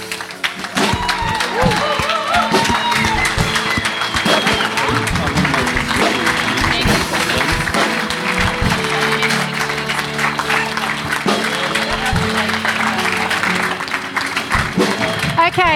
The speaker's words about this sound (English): So, as I welcome them up on stage this morning, I wonder if we could just give them, stand to our feet as well, and give them a really big clap and cheer as they come up this morning.